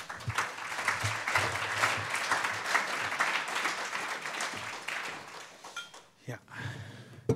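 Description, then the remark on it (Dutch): An audience applauds the introduction of writer Stefan Hetmans, clapping steadily for about six seconds, a dense, even wash of many hands that thins out and fades, followed by a few scattered claps and some low voices. “Waar is hij? Applaus.”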